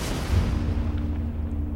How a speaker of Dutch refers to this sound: Dat vorm blijkt een bom te zijn. De bom rolt over de straatstenen tot net niet onder de koets. En dan klinkt een oorverdovende knal.